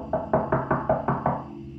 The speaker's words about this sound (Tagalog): Pinarap ko ang pintuan ng room 04 at kumatok ako.